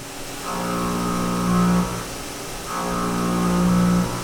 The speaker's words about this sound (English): He fastens a few drill bits into larger cartridges before loading them into the CNC mill. Johnson then calibrates the machine, checks the program he wrote one last time, before the drill spins up and starts shaving away chunks of aluminum.